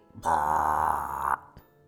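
human body sound, loud burp

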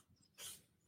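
animal, cat sneezing

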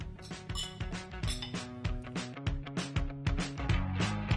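household object, glasses clinking

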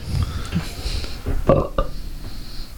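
human body sound, belch

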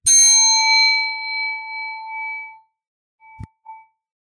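sound effect, gong ringing

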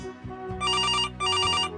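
signal or alarm, telephone bell ringing

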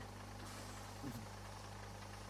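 vehicle, bus engine idling

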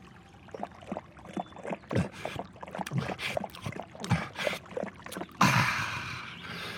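nature, flowing stream water

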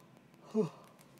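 human body sound, yawning

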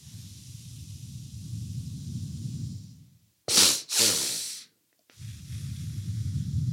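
human body sound, two quick nasal inhales

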